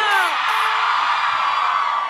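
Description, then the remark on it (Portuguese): A loud crowd roars and cheers continuously, with whoops and high shouts rising above a dense wash of voices, sustained for a couple of seconds. “Quem gostou, joga a mão e grita!”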